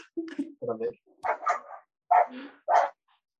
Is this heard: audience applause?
no